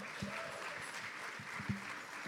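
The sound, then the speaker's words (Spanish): An audience applauds for Jesus, a dense wash of many hands clapping at an even level for a couple of seconds, with faint murmuring voices underneath. “Su nombre es Jesús. Dele un aplauso.”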